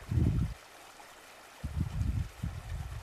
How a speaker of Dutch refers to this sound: Naast jou kabbelt een beekje, heel zachtjes.